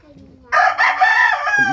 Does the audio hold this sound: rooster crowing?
yes